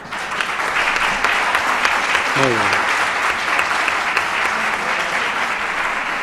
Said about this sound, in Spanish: Un aplauso para él, y un aplauso.